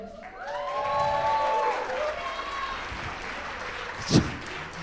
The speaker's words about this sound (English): You're the only one who got unsolicited applause tonight. That's unbelievable.